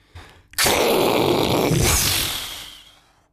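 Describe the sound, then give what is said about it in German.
A voice mimics a rocket exploding: a sudden loud, breathy burst that roars and hisses for a couple of seconds, then fades away, alone with no other talk. “Und sie explodierte wirklich”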